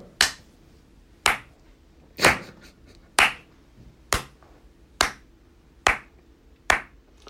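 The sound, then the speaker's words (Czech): Slow, sparse applause given after a rant: about nine sharp, crisp claps at a steady pace of roughly one per second, each ringing briefly before the next, with no voices. “Tyhle divný zvuky, to byl potlesk, to byl potlesk, eh, který jsem”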